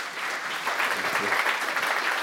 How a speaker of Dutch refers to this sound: Nou, warm applaus voor Willem Anker.